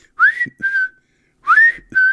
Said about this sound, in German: Ist das eigentlich schon Catcalling? Ich habe, ich bin hier Opfer von Catcalling tropischer Vögel.